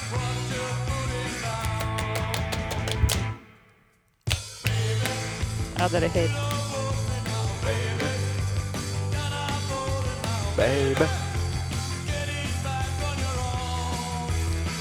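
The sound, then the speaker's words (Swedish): A loud rock song with heavy drumming, some snare, and dense guitar cuts out briefly near the start, then crashes back in full force, with a voice briefly audible over the music. “Så jävla trung, tungt trummande också. Ja, lite virvel.”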